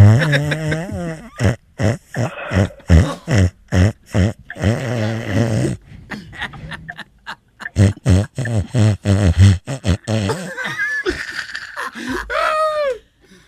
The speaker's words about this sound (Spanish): Cabrón, se tiene un gargajo ese que está roncando ahí, ¿eh?